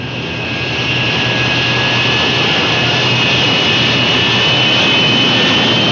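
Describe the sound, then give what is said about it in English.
The four jet engines of a large bomber are started during the pre-takeoff checklist, a roar that swells over the first second into a loud, steady blast of noise topped by a high, thin turbine whine. “Starting jets.”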